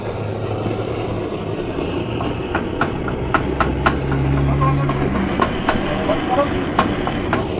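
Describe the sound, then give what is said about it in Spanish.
Cooking sounds from a street taco stand on the corner by the house: sharp, irregular metallic clicks and taps ring out over a steady, dense rumble and a low droning hum, continuing throughout at moderate loudness. “Estamos escuchando los, los ruidos que hacen en los tacos, unos tacos de aquí de la esquina de la casa.”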